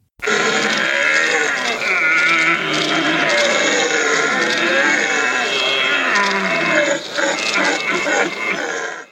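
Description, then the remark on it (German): A person imitates a red deer stag's rutting calls in a stag-calling competition, a 2016 winner: a loud, continuous, raspy bellowing with a rough, grinding texture, sustained for several seconds with only brief dips, alone. “Hirsche röhren nicht nur, sie schreien, orgeln, trenzen und knören”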